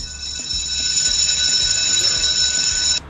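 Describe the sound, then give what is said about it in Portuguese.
A loud, continuous electric school bell rings steadily for about three seconds, then cuts off abruptly, with faint background noise underneath. “Bom, Pô, agora tô com o sinal, vamos voltar pra escola pro nosso, nosso recreio aqui, já deu, né?”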